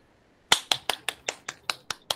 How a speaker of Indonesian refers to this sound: Apa itu? tepuk tangan gue itu. Oh, kira lu mukulin nyamuk.